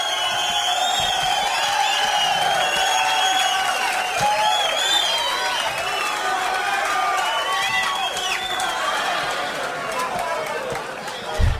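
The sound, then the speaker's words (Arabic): A large crowd cheers and claps continuously, many voices shouting and whooping together over a steady wash of applause, loud and sustained throughout without pause. “بدها سقفه هاي لحظه الجماهير الجماهير”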